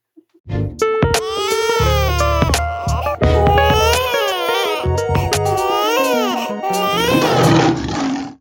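A baby boy cries loudly and continuously for several seconds, a strained, high wail that swoops up and down in pitch, broken only by a couple of quick gasps for breath.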